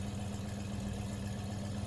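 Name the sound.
car engine rumbling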